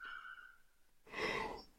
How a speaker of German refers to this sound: Oh, es wird nochmal gegähnt.